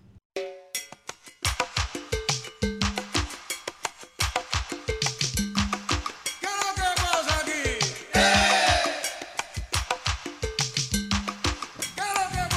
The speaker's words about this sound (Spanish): A ella le encanta la salsa, a ella le fascina bailar salsa. y que esa sea la cubana, y el, son cubano.